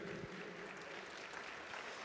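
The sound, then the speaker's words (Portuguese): An audience stands and applauds the Lord Jesus in worship, a steady dense wash of many hands clapping at once with no clear individual beats, holding an even level throughout. “Fique em pé, aplauda o Senhor Jesus.”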